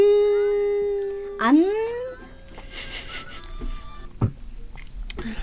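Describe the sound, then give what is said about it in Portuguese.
A voice imitates the cry of a Chinese cat named Mimoso, which does not say miau: a long steady wavering tone that swoops upward into a rising wail, followed by quieter room noise and a couple of brief soft knocks. “Mas o gato chinês também não dizia miau, dizia.”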